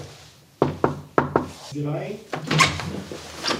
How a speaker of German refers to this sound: Und jetzt klopfen wir mal. Klopfen wir mal. Büro von Bonifaz Banzer.